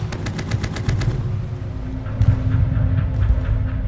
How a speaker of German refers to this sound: Viel geschlafen wurde diese Nacht nicht. Geschützsalven, Maschinengewehrgeknatter und unsichtbare Flugzeuge am Himmel.